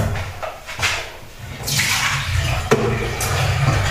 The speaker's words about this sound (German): Hier muss ich noch das Wasser ausleeren.